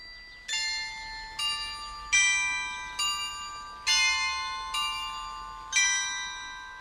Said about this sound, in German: So klingt das Glockenspiel am Königsberger Rathaus, ein Gebäude aus dem 17. Jahrhundert mit wunderschönem Zierfachwerk gleich am großen malerischen Marktplatz.